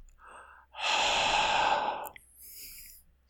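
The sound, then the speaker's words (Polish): A person imitates Darth Vader's heavy, mechanical respirator-mask breathing: one long, loud, raspy breath, followed by a fainter, airy exhale. No one speaks. “Oddech Wadera.”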